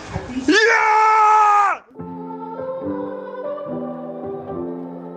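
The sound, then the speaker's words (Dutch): A person in a living room in front of the television lets out a loud, high-pitched scream of excitement for nearly two seconds on hearing that the Netherlands was the winner, then drops into calmer, excited vocalizing or chatter that continues at a moderate level. “En toen ik klaar was met schreeuwen en gelijk wat rustiger was, dacht ik: hey, dit moet ik vieren.”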